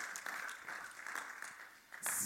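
A crowd applauds with steady, dense clapping that swells louder and brighter toward the end, with no voices standing out.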